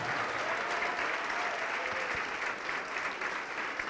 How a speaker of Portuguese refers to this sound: Olha que coisa linda, olha quantos filhos pródigos voltando. Vamos aplaudir mais, igreja, vamos aplaudir mais. Olha quantos filhos pródigos voltando, oh glória!